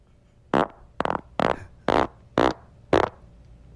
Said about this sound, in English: It's weird, isn't it, dude? It's I like, mean, it's like one of those farts you could spell.